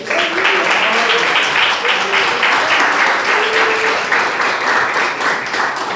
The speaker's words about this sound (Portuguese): Essa é a palavra que Deus colocou no meu coração nessa noite e as palmas que adoram e glorificam o nome de Jesus.